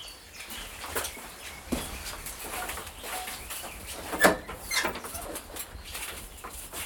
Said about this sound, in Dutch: worden hier eigenlijk min of meer al begroet door de boerenzwaluwen die hier zijn. In de hoeken van de vogelkijkhutten hebben ze nesten gemaakt, waarin ze nou, de eieren leggen, waar de jonkjes ook uitkomen.